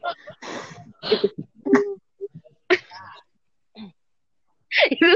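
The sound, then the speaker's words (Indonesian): A voice imitates a dragon's breath with several short, harsh, raspy huffs and throaty hisses, fairly loud, separated by brief pauses. “Gak kayak napas cuman kayak napas naga”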